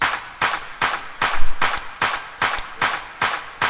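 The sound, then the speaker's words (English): Crisp electronic dance-music clap samples hitting on every quarter note, about nine bright, snappy hits in a steady, even pulse, played alone with nothing else underneath. “And then classic EDM claps on quarter notes.”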